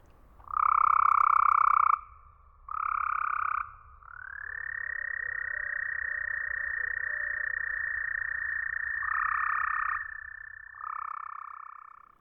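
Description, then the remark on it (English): Loud toad calls recorded at night in springtime at a cemetery in a Tennessee forest, equalized to simulate toad hearing: two short buzzy bursts, then a long steady trill that others overlap, sounding bright and filtered with little low end and no voices. “But let's listen to the same recording after it's been equalized to simulate what the toads hear.”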